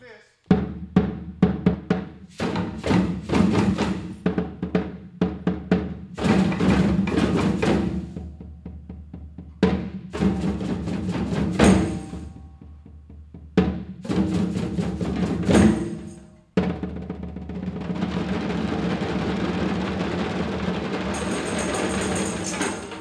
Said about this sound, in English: 21 veterans, NVA clinical staff sit in a large circle in a hall on Mount Sequoia Center, gripping djembes, congas bells, tambourines, percussion blocks, performing a call and response.